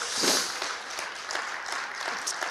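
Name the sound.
audience applause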